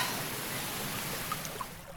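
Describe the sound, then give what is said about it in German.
A steady, even rush of water flowing along a historic, man-made irrigation channel used to water orchards and vineyards, fairly loud, with a few faint bright splashes or trickles rising briefly above the constant wash. “bei Walen handelt es sich um historische, künstlich angelegte Wasserkanäle, die zur Bewässerung der Obstwiesen und Weinberge dienen.”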